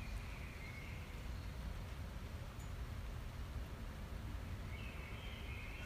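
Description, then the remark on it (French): Soft, steady rain hisses through a forest at 5 a.m., with a few faint bird trills near the start and again toward the end. No one speaks. “j'ai tronqué mon café contre, contre la pluie, les arbres euh, et les oiseaux.”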